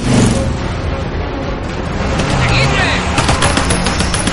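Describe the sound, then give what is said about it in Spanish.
A motorcycle engine kicks into life and revs hard, a loud, dense rattling roar that rises in pitch as it accelerates, with sharp crackling bursts toward the end. “Jan sube en la motocicleta. Arranca y acelera.”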